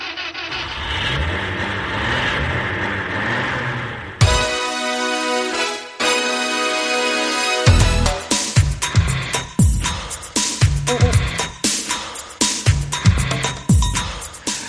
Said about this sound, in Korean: 자, 시동 걸었어요. 좀 옛날 차 소리 같죠? 그래도 잘 나가요.